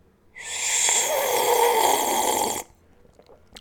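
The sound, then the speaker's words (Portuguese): One long, airy slurp of espresso, fairly loud, a breathy sucking hiss lasting about two seconds before cutting off abruptly into near silence. “Ai, pera, esqueci-me, agora tenho que me ouvir sorver o meu expressozinho, peraí”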